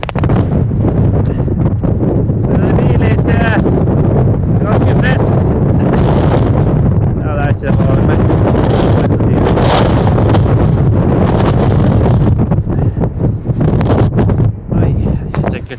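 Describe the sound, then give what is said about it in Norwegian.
Strong wind buffets a phone microphone at a boat harbour in a loud, steady low roar that barely lets up for the whole stretch, with a muffled voice faintly audible beneath the rumble at times. “Jeg skal prøve å gå fremfor ut eh, bort, bort fra det litt ly for vind.”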